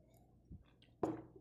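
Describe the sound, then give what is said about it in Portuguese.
Someone takes a quick sip of water: a soft thump, then a wet gulp and breathy swallow, ending with a small lip click. No talking. “Acompanhe o raciocínio pois bebeu água.”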